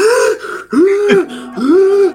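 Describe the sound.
A voice imitates wheezy, labored breathing through an inhaler: three strained, whistling breaths in steady succession, fairly loud, with no talking.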